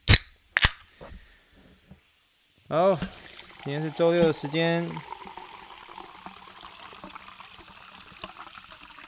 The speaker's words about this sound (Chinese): 让我们一起听一听气泡水的声音。